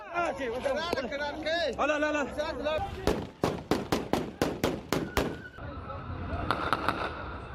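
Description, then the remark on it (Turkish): Excited voices shout over a crowd of families waiting to leave the country outside Kabul airport in Afghanistan, then a rapid string of about ten sharp, loud gunshots rings out at a steady pace, followed by lingering crowd noise and a few fainter shots. “Ülkeden ayrılmak isteyen aileler Kabil havalimanı önünde beklerken silah sesleri hiç susmuyor.”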